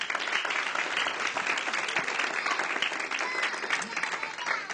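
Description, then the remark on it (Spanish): An audience breaks into sustained applause for the Holy Spirit, a dense steady wash of many hands clapping at once, holding at an even loudness for several seconds with no clear individual claps standing out. “Alguien dé un aplauso al Espíritu Santo.”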